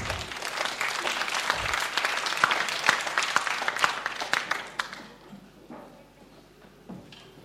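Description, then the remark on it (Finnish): A standing church audience bursts into dense, steady applause for a sermon, many overlapping claps holding strong for about five seconds before thinning out to a few scattered claps and fading away. “Annetaan nyt tälle hyvälle saarnalle isot aplodit.”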